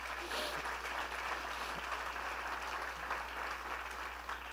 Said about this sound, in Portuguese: Um aplauso ao Senhor pelo Evangelho.